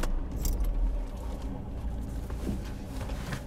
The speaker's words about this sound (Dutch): En we moeten de auto parkeren en kunnen hem uitzetten.